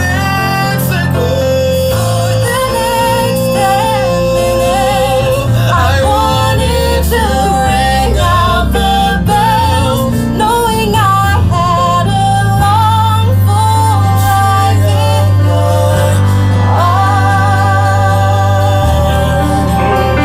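A loud, continuous musical theatre duet, a mashup combining two songs into one sweet piece, with sung vocal lines weaving over a full orchestral backing, sustained bass notes and bright accompaniment running throughout.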